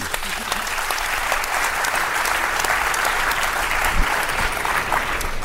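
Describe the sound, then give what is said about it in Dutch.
Sustained applause from an audience, a dense steady patter of many hands clapping at an even loudness throughout, with no talking over it. “Applaus voor”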